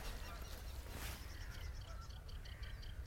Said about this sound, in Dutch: Nee, nee, rietzanger. De eerste rietzanger voor mij van het jaar. Leuk. Wiet, wiet, wiet. Zaligheid hoor, dit.